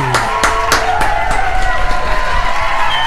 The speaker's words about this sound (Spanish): Mirá, mirá, mirá, mirá la tribuna, ¿cómo te recibe? Muchas gracias. Ahí está, mira esa ovación.